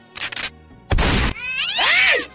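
A cat meows loudly: two short, harsh, noisy cries followed by one long, drawn-out wavering meow. No one speaks.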